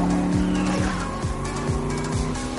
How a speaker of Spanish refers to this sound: Los corredores inician la carrera. Los coches avanzan por una recta.